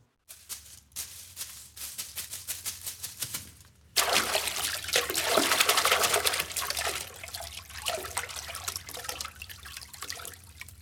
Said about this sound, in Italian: Tutti i cigni dello stagno si tuffano in fretta nell'acqua.